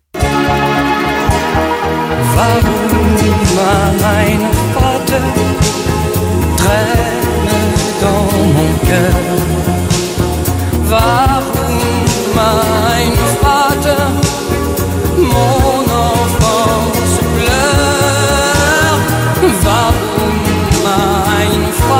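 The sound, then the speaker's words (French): A recorded song, written in 1980 aboard an airplane, plays loudly and steadily from start to finish, with full instrumentation and a strong rhythmic bass line, and no talking over it. “il monte dans un avion, c'est ce que l'on m'a dit, et il écrit une chanson. Euh, bah, écoutez.”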